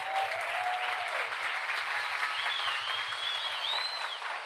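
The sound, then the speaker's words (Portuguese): A church audience breaks into sustained applause for its leaders, a dense wash of many hands clapping steadily at an even loudness throughout, with a few faint whistles rising above it and no clear speech. “Uma salva de palmas para os nossos líderes.”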